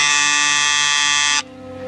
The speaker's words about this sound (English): And then the, the doorbell rang, and I jumped a foot.